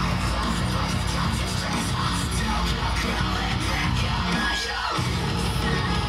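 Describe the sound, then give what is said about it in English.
Loud, dense heavy metal with harsh screamed vocals over pounding drums and distorted guitars, a wall of sound that stays relentless throughout, briefly thinning in the low end near the end. “Oh my god right, he's back to the sick fucking screams.”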